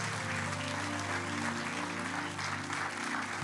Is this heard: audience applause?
yes